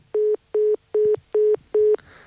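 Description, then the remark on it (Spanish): A telephone hang-up tone after a call ends: five short, identical beeps at a steady, fairly quick pace, each a flat electronic pitch, clear with nothing else around them. “cuando dice minimal se refiere a ese sonido del teléfono cuando”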